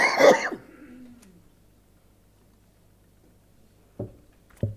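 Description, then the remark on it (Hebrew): A loud cough bursts out at the start, followed by a long quiet stretch, then two shorter, sharper coughs near the end. “שאני משתעל, תדבר בינתיים.”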